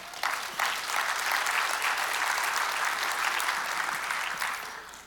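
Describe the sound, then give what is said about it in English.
A large crowd claps and cheers together, a dense, steady wash of applause that swells right away and holds for several seconds before starting to taper off, cheering the $740,000 given over ten years to local, regional and global causes. “You should cheer it on.”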